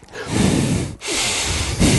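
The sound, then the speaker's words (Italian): Heavy breathing blown right into a microphone: two long, rushing exhales separated by a brief pause, with a third breath starting at the end. No one speaks. “attenzione ragazzi con sto microfono, anche se pensate di respirare si sente”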